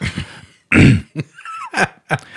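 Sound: imitated throat clearing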